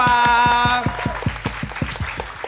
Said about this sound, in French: Est-ce que je peux avoir des applaudissements pour mes copines, s'il vous plaît